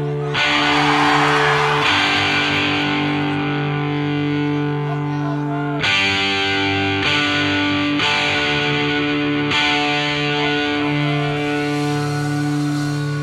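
A loud punk rock song with heavily distorted guitars and pounding drums, playing as a dense, driving wall of sound that shifts chords every few seconds.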